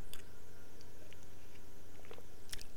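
Someone takes a quiet sip of apple juice, with soft wet mouth clicks and a brief slurp near the end over a low steady hum, no talking.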